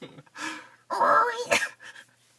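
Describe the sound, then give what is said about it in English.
A person makes a high, strained squealing noise with their voice, imitating a pig, in a short nasal burst that rises in pitch, followed by a breathy huff. “They're squealers, like pigs. They go wee.”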